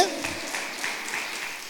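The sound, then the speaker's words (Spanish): An audience applauding steadily in praise of God, a dense wash of many hands clapping at once with small swells in loudness, sustained throughout without a clear break. “Dele ese fuerte aplauso a Dios.”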